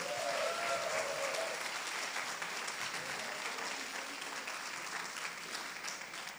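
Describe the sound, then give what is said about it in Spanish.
An audience applauds steadily for several seconds, a dense wash of clapping at an even loudness that tapers slightly toward the end, with a few faint voices mixed in. “Démele un fuerte aplauso a esta gente.”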